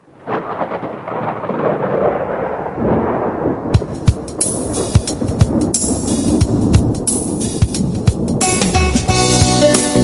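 A deep, rolling rumble of thunder fills the opening seconds, then heavy rain takes over, hissing steadily with sharp crackling drops and rumbles beneath, loud and continuous with no voices.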